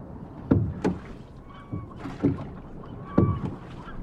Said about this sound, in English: Oh, there's the police boat.